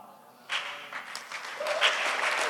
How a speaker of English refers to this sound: Yeah. Oh, you should clap. Uh, you should clap. You should clap out until your hand starts hurting you.